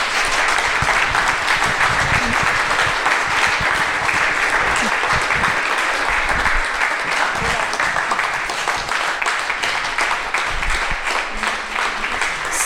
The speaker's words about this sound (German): Herzlichen Applaus für den Freddy Künstler. Danke vielmals.